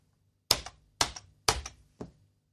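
Four crisp, clacky keystrokes on a computer keyboard, struck slowly and evenly about half a second apart, isolated, with the last press slightly softer; someone typing the German word "Sau" on a keyboard where A and S sound very similar.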